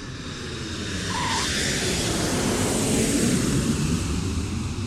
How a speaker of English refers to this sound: Meanwhile, Coniston Water, a British Airways Boeing 747 named after a stretch of water in the Lake District, was heading into the middle of the invasion.